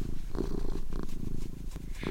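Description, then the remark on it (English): Michelle Thaller's cat, Cassiopeia, purrs at home, a steady low rumble that pulses in a slow rhythm as it breathes in and out, with no one speaking. “This is Michelle Thaller, and today I'm speaking to you actually from my home with my cat, Cassiopeia.”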